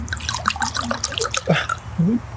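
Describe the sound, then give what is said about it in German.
Sparkling wine pours into a glass, a bright fizzing, bubbling trickle with little gurgles and drips running steadily for a couple of seconds. “Zack, lassen wir den Korken knallen. Dein Gläschen.”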